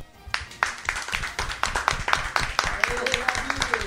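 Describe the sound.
A small group claps their hands in steady, overlapping applause, close and fairly loud, with the sharp claps continuing for several seconds while voices murmur underneath.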